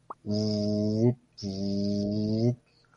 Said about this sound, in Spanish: Esa es una alarma.